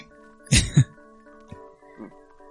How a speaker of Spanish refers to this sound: no estoy enfermo, la tos es porque tomo medicina, eh, porque tengo un problema en el corazón y esa medicina me suele provocar de repente tos.